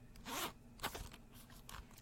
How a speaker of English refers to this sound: This is the zipper. You can't talk over the zipper and say it's zipper ASMR.